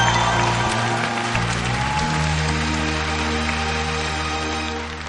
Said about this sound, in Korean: 여러분 박수 한 번 부탁드리겠습니다. 우리 아버님께도 네.